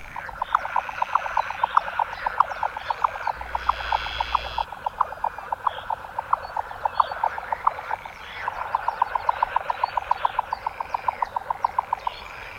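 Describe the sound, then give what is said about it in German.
A jack snipe, a small bird, gives its display call in marshes in its home range: long trains of rapid, rhythmic knocking pulses, like a galloping horse, in two clear bouts over a quiet marshy background with no voices. The call carries far. “Ja, das ist sie, die Zwergschnepfe. Und dieser Ruf ist weit zu hören, obwohl die doch so klein ist.”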